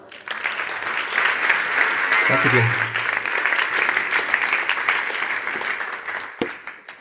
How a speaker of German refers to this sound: ich darf Sie bitten, ihn mit mir gemeinsam willkommen zu heißen auf der Bühne. Ich bin schon sehr gespannt, was er uns präsentieren wird. Großen Applaus